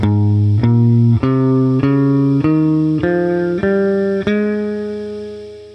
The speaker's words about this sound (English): So let's say we start a major scale on A flat, it'll sound like this.